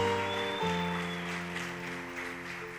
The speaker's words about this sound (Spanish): Vamos, dale palmas al Espíritu Santo.